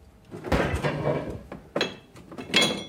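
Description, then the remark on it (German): A man goes to the fridge; its door opens with a soft thud, followed by glassy clinks and the knock of a bottle being handled as rakia is poured, a few sharp bright taps spread over a few seconds with no talking. “Er geht zum Kühlschrank.”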